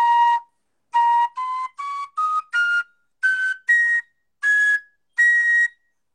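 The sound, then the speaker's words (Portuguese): A gaita, a wind instrument, plays about ten short, clear notes alone from its first octave, climbing step by step in pitch like a slow scale, each note sustained briefly with small gaps between them. “aí eu demorei uns dias, cara, só soprando, porque eu vim entender que é a partir da primeira oitava que você consegue fazer os sons da gaita, né?”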